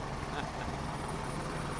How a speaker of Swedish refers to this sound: Nu kommer en helikopter också. Perfekt.